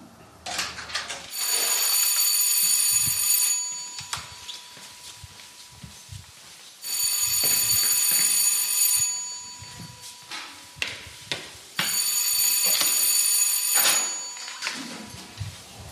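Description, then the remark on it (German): A loud theatre call bell sounds the third call signal in three long, insistent bursts of a few seconds each, separated by brief pauses filled with quiet background noise and no talking. “Das war das dritte Kennzeichen”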